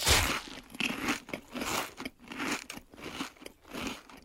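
Loud crunching of potato chips being bitten and chewed, a series of crisp crackling bursts repeating every half second or so, with no voices.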